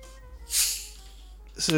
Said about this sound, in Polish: Uwaga, otwieram kole.